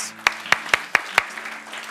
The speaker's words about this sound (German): Gib Jesus mal einen riesen Applaus.